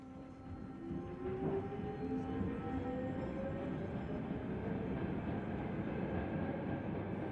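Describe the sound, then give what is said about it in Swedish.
A subway train begins to roll just after a passenger boards, slowly and heavily at first, a heavy low rumble building as it gathers speed, with rising tonal whines from the motors and wheels squealing against the rails. “Genast efter att jag klivit på började tåget rulla. Först långsamt och tungt. Sen snabbare.”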